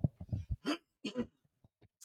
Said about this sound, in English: Hey guys, I got to clear my throat and cough. Hang on a second.